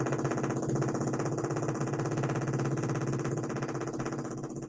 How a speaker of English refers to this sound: They are jackhammering directly behind this door.